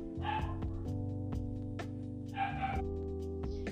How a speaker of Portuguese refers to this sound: Desculpa se o cachorro está atrapalhando a gente um pouquinho, faz parte.